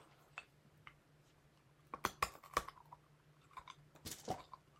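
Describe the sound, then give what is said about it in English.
Munching and crunching on a push pop candy, with sharp irregular bites and chewing clicks that cluster in bursts, heard alone over a faint steady hum. “What are you munching on? Push pop.”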